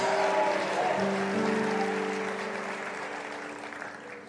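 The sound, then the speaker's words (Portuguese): A crowd claps steadily with dense, noisy applause, applauding the Lord, while sustained musical tones hum underneath, the clapping gradually easing in loudness toward the end. “Enquanto você aplaude, você pode glorificar o Senhor com a sua boca.”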